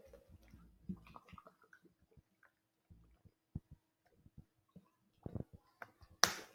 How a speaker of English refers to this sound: Let me take a one minute break. Let me sip of water.